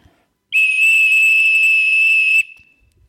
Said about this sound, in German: Und dann kann man natürlich mit demselben Ton auch noch mal einmal lang pfeifen.